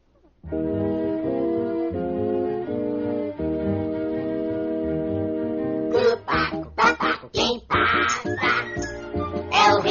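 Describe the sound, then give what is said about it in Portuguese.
A parrot sings a steady, nasal melody of held notes for several seconds, then breaks into a quick series of loud, harsh squawks. “Já estava quase chorando quando ouviu alguém cantar. Quem estaria cantando?”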